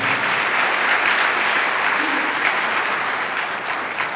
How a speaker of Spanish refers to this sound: Gracias, Señor. Amén. Denle un aplauso al Señor y tomen asiento.